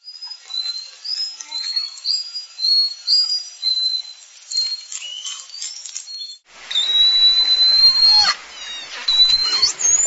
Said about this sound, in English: And then um, whales also whistle.